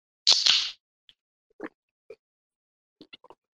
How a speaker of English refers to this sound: I mean, if we're just fish, if we're just fishing for sounds, how about the opening of my next beverage?